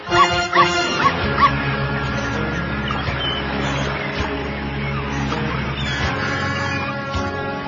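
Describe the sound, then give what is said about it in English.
A small dog, like a Chihuahua, lets out four quick, high-pitched yaps in the first second and a half, then stays quiet under a steady bed of music. “What do you get? Chihuahua.”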